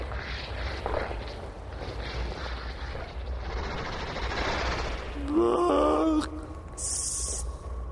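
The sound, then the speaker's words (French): A monster, Gloutor, growls as it slowly clings to a tree, in a deep, rough, continuous rumble, then breaks into a louder, pitched, wavering snarl near the end, followed by a short hissing burst. “Le monstre s'accrocha lentement de l'arbre en grognant.”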